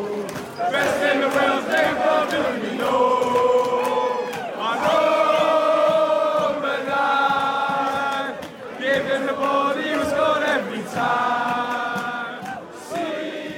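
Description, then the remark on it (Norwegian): A large crowd of Liverpool football fans sings a slow, drawn-out chant for Roberto Firmino, many loud, uncertain voices holding long notes and sliding between pitches in a few sustained phrases, with scattered shouts underneath. “Videoene viser usikre sangstemmer som prøver seg frem i det sakte tempoet den egentlig skal synges i.”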